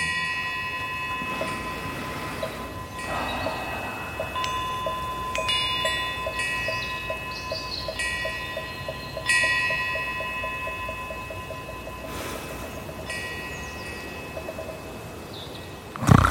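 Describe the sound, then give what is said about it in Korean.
A temple wind bell swaying in the wind at a temple at the foot of Sanseongsan in Damyang, South Jeolla Province, South Korea, rings in long, overlapping metallic tones that linger and fade over a steady, hissing outdoor ambience, with a soft run of faint ticking partway through and no voices. “바람에 흔들리는 풍경 소리가 잔잔한 물결을 만들어내는데 오늘 가만히 눈을 감고 올 한 해 어떤 일을 하면 좋을지 잠시 명상의 시간을 가져보겠습니다.”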